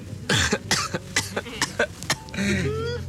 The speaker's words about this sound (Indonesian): sampai batuk pak